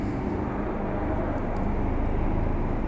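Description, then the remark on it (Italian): Another helicopter drones overhead, positioned above, a loud, steady low rumble that holds constant for the whole stretch with no voices over it. “ma dai un altro elicottero”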